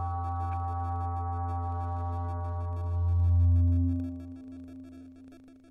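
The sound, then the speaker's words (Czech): A deep, gong-like tone rings steadily with layered metallic overtones, swelling louder midway before easing back while the resonance keeps humming. No voices are heard. “Uslyšíš takový jakoby gong, se to rozlehne a pak neslyšíš nic, a pak je tu ticho a pak znovu uslyšíš takový zvuk, co připíná gong a pak je tu znovu ticho.”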